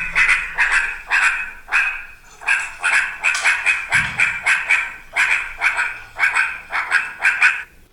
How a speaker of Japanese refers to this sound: もっとやばいぞっていう時には鳴き声が変わるんですよね。いきますね。